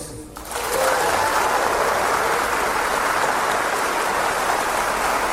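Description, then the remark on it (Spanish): A crowd breaks into applause for the brothers after a brief quiet moment, the clapping swelling quickly into a dense, steady roar of many hands that holds strong for several seconds. “Denle un aplauso a los hermanos.”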